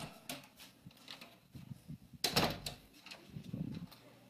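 A door is opened partway from one side, one sharp clunk with a brief sliding rush, set against a low, murmuring background with soft scattered knocks before and after.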